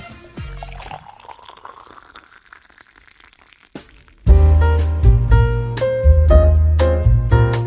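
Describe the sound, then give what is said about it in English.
Coffee pours steadily into a cup for a few seconds, its gurgling pitch rising as the cup fills, before loud music abruptly takes over. “Here, I sit in the parlor in a nice big leather wingback chair, sipping my coffee.”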